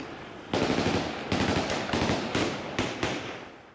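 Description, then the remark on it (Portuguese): A series of sharp gunshots crack out in an irregular burst, six or so loud reports with echoing tails, fired outdoors at street protesters carrying a huge Afghan national flag on independence day in the Afghan capital, with a rumbling background of crowd noise. “Pouco depois, tiros foram disparados contra eles.”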